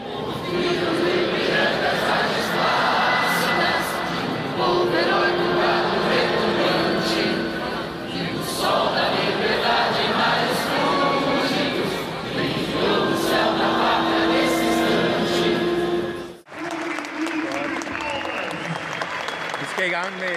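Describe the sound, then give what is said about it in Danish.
A large stadium crowd applauds in a minute of applause, held instead of a minute of silence, to honor the champions, a steady, dense wash of clapping mixed with crowd voices, holding at full volume before an abrupt cut to a thinner stretch of crowd noise. “der er ikke et minut stillhed, der er simpelthen et minuts øh, klapsalver.”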